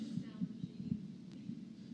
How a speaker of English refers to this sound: I'm hearing a really odd like echo or feedback or something.